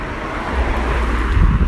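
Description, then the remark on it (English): A car rushes past, a broad roaring whoosh with a deep rumble that swells toward the end, mixed with gusty wind noise on the microphone. “And I just got hit by a car.”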